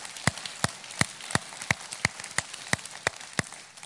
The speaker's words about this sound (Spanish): Vamos a darle otro aplauso a los padres de esta casa.